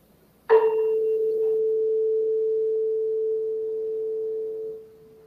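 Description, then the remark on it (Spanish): A tuning fork is struck once with a sharp metallic tap, then rings as a clear, steady pure tone for several seconds before fading quickly, with faint background noise and no talking. “Eh, si golpeamos el, el otro diapasón, pues veremos que el sonido es idéntico en el mismo tono”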